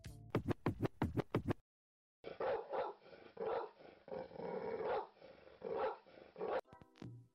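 A quick run of about six sharp dog barks, then a brief silence before a long, rumbling growl that rises and falls in waves, fairly loud, ending with one short bark.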